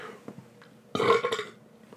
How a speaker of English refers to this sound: Excuse me. You've had some good burps here recently. Yeah, it's because I'm gassy now.